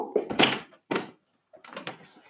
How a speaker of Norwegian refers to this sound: Lukk den døra!